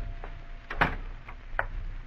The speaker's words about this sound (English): You open the door, step inside.